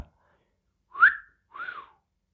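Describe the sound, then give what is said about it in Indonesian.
A two-note catcall whistle from neighborhood women at a man walking through a housing-complex alley, a quick rising swoop followed by a longer arching tone that falls away, clear with nothing else around it. “terus dia keluar cuman pakai kaos dalam dia lewat gang komplek tiba-tiba disiolin sama ibu-ibu PKK”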